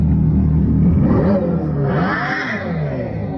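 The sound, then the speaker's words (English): A loud, fake V8-style engine rumble, produced artificially by an electric car, revs continuously, its pitch climbing sharply around the middle before settling back, with a whirring, throaty tone and no voices. “it makes me sad and reminds me of the fake V8 sounds from electric cars”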